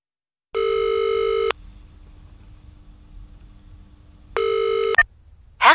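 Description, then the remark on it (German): A telephone ringback tone sounds twice as a caller rings a telephone service, each steady buzzing ring lasting about a second with a long pause between, followed by a click as the line connects. “Sie rufen bei einem Telefondienst an und hören Folgendes.”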